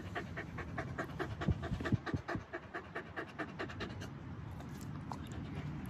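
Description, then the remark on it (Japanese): A Hokkaido dog named Toichiro, with long scarf-like fur around its neck, pants rapidly and steadily, quick breathy huffs in an even rhythm lasting several seconds, with no talking. “北海道犬は首の周りがもう、えー、マフラーのようにね毛が長いと、ね、いう感じなんですけどねはいと一くん。”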